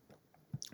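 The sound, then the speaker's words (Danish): Wet squishing mouth sounds of someone biting into food and chewing, a few soft smacks building to a louder crunchy bite at the end, with no talking. “Så tager man lige en bid, mens, mens vi venter.”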